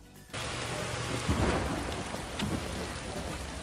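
Steady, dense rain pours down in a constant hiss, with low rumbles of thunder rolling through partway in. No voices, just the storm, loud.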